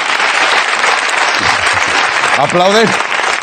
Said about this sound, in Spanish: Pero que aplaudís.